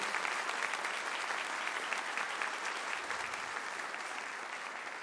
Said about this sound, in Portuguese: Dá um aplauso para Jesus. Ele é maravilhoso.